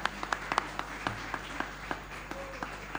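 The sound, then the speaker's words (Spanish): Sparse audience applause for the dancers at the Rizomera, a small crowd clapping in scattered, irregular bursts with sharp individual claps standing out, fairly quiet overall, and no voices. “Bien, Y vamos a darle fuerte el aplauso a las bailarinas, por favor, también.”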